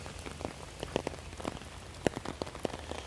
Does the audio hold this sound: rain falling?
yes